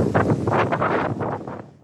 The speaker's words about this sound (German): Zwischendurch gibt es auch mal wieder Stürme, man hört den Wind.